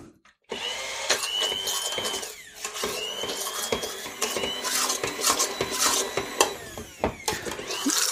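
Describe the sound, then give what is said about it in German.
A motorized immersion blender whirs steadily in a pot on a switched-off stove for several seconds, puréeing food, its drone broken by sharp metallic clinks and scrapes as the blade knocks against the pot, with no talking. “Wenn ich es jetzt püriere, kann es nämlich auch sehr schnell anbrennen mit dem Pürierstab.”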